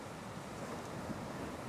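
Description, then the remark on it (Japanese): Steady, wide-band rush of surf washing against a shore at night, the dark sea barely visible from a few stone steps by the seaside, continuous and fairly soft with a gentle swell, mixed with a light breezy hiss and no voices. “数段程度の石の階段に座り、ぼんやりとしか見えない暗い海を眺める。”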